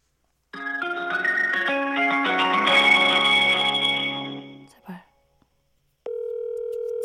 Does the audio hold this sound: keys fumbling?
no